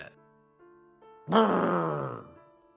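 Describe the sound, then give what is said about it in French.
A voice imitates a donkey crying out in pain, one loud, strained bray that slides downward for about a second, after a few quiet, steady tones. “cria le pauvre animal.”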